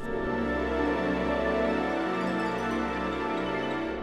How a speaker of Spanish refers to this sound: Al final básicamente es un acorde que suena así.